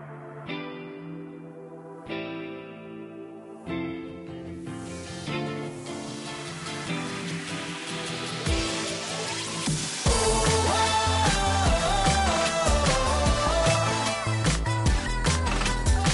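Instrumental intro of a Korean pop song played on a radio broadcast: sparse synth chords strike in spaced hits, layers build steadily, then a full, louder beat with drums and bass kicks in partway through. No vocals yet.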